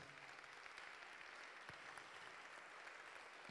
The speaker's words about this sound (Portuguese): Não para de aplaudir, não, porque não parou de vir gente.